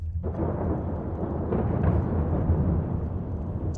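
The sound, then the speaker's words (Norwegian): A deep, thunder-like rumble from a sonic boom starts abruptly and rolls on loudly for several seconds, heavy in the low end, with no voices. “En sånn rommel, nesten som et tordenskrall.”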